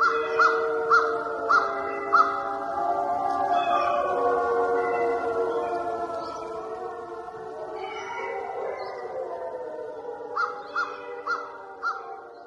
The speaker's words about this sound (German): Oder hier in Kanada etwa 300 Kilometer nördlich von Toronto, wo man Wölfe hört.